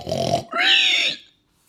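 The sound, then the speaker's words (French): A person imitates a pig, giving a low rough grunt followed by a higher, squealing oink-like cry, two loud bursts in quick succession with no other talk. “Il imite bien le cochon à la fin.”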